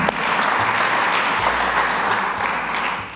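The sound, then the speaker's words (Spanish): An audience claps loudly and steadily for the Lord, a dense wash of many hands applauding together at a constant level for several seconds, with no voices standing out. “Dele un fuerte aplauso a mi Señor.”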